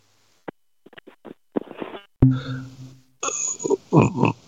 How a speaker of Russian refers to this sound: О, бутылку открыл, слышит, как бум, да.